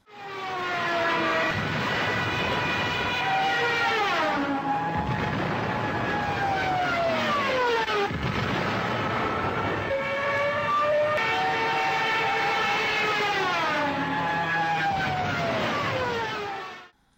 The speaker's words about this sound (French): Ce que vous venez d'entendre est donc la tristement célèbre sirène de piquet des Stuka qui précédait donc de peu généralement les déflagrations mortelles produites par le largage de ces bombes.